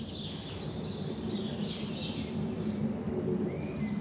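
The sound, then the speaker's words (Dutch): Several birds in the Vliegenbos sing and chirp together in overlapping, relaxed social songs, not alarm calls, over a steady low outdoor rumble; no voices. “Heel leuk is dus, wat we dus nu horen, je hoort dus, al, je hoort dus iedereen die zingt nu op zijn sociaalst. Hè? is allemaal, dus dit zijn geen alarmroepen die je hoort”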